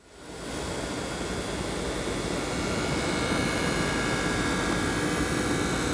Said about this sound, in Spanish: Este es el Coil Wine, el ruido que le hace su PlayStation 5.